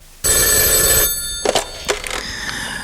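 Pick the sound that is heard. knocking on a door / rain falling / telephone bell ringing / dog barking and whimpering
telephone bell ringing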